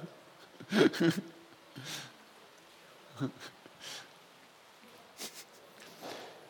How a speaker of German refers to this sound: Kinder, die durch den Regen rennen.